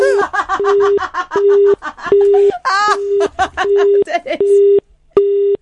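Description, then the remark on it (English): A telephone disconnect tone after the caller hangs up beeps in a steady on-off pattern, about seven or eight loud, even pulses, while people laugh over the first part. “He's put the, phone, the phone, down.”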